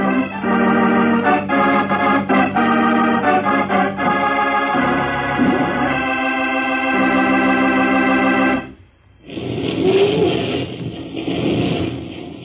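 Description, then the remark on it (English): A loud musical passage breaks off, then a roaring torrent bursts in: a dam bursting, hurling millions of gallons of water over the countryside, a broad, churning wash of noise that fills the last few seconds. “That's a dam bursting hurling millions of gallons of water over the countryside.”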